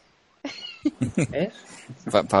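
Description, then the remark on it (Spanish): A pet kitten, one of two named Pipo and Luna, meows repeatedly, a quick series of high, squeaky cries rising and falling in pitch, fairly loud and with no one talking over them. “Para ver gatitos monos.”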